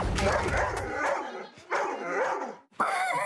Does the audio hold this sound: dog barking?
yes